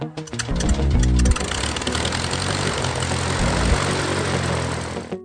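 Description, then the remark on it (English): A propeller airplane engine drones steadily, a loud, continuous mechanical hum with a rough, pulsing buzz that holds at nearly constant strength throughout, with no voices. “You're going to be hearing a little bit of background noise throughout the day, but it's just airplanes, so it's not, it's, it's not really noise.”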